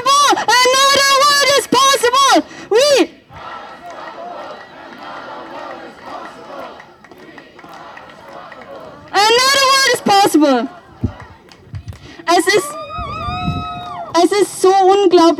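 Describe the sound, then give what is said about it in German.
A large protest crowd at a demonstration chants the slogan "We are unstoppable" loudly in repeated bursts, with a murmuring crowd in between before the chanting swells again near the end. “Also Leute, ich höre euch von hier gar nicht. Nochmal viel lauter und wir wachen jetzt alle einmal ganz kurz auf.”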